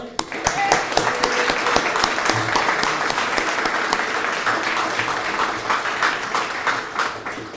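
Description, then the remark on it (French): A conference audience applauds the organisers, the Île-de-France section, steadily for several seconds, a dense, crackling wash of many hands clapping at a fairly even loudness from start to finish. “On peut les applaudir.”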